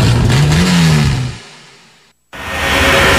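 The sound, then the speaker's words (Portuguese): A car engine revs hard at high RPM, its pitch climbing and then easing off, before the sound cuts to a brief silence and a loud rushing noise returns. No one speaks. “Alta rotação.”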